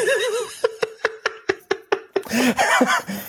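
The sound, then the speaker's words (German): Small bells ring in a quick run of about eight bright, evenly spaced strikes, fairly loud, with a voice and laughter just before and after. “Hörst du meine Glocke? Hörst du meine Glocken?”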